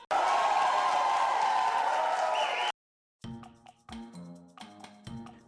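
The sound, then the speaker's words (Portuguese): A burst of recorded crowd cheering and applause, inserted by the show's DJ as the audience's response, loud and dense, lasts a few seconds and cuts off abruptly, followed after a brief silence by a short musical phrase with rhythmic tones. “Eu vou pedir até a nossa rede DJ para inserir aqui a resposta da plateia tá?”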